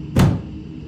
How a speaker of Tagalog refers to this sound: Napipikit na ako nang biglang magsara ang pinto na parabang ibinagsak ito ng malakas.